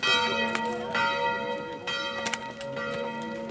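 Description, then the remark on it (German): Church bells ring the Angelus at seven in the morning, several overlapping strokes sounding every half second or so with long shimmering overtones, steady, no voices. “Das Angelus läuten früh um sieben.”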